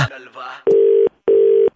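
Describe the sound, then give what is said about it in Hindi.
A moment of voices gives way to two loud, steady telephone tones, each held for under half a second with a short gap between, like a call being placed. “Phone लगाओ.”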